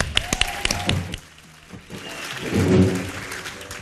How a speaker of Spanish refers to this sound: Un fuerte Aplausos